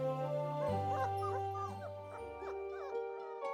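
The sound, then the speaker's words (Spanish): A dog whimpers and yips repeatedly in short, high, wavering cries over a steady sustained musical drone. No one speaks. “A fin de remediar la situación, sus padres decidieron comprarle un perro.”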